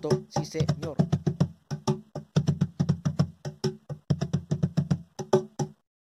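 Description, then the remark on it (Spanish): Hands strike a cajón, playing an Afro-Peruvian rhythm, in a quick repeating pattern, mixing deep booming bass tones with sharp crisp slaps, played in several short phrases separated by brief pauses, with no one talking. “Importancia del cajón como esencia del ritmo afroperuano y de nuestra identidad”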